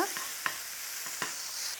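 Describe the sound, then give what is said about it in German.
Leeks sizzle steadily as they brown in a hot pan for a fish pasta with cream, a broad crackling hiss, while a utensil scrapes and stirs through them a few times with short sharp knocks. No one speaks. “Ich mache es jetzt so, ich werde zuerst einmal hier den Lauch anbraten.”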